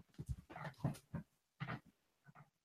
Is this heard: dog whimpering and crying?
yes